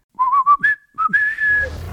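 A person whistles a short, bright tune: several quick rising notes, then a long held note that slides upward and fades, heard close and clear with no talking.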